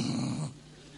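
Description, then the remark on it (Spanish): A female pet dog growls low and rumbling for about half a second, then the sound drops away to quiet. “Pero ha entrado gente en casa que la perra”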